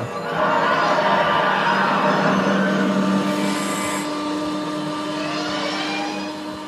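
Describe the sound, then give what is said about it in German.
A film's time-machine car sound effect hums and whines steadily and loudly for several seconds, with layered electronic tones and a brief high hiss midway, no voices present. “Auch der Sound von dem Wagen.”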